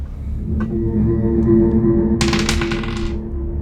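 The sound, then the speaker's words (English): Dice clatter across a hard tabletop for an intelligence roll, a quick burst of rattling clicks lasting under a second over a steady low hum, after a couple of faint earlier taps. “Um, give me a give me an intelligence roll.”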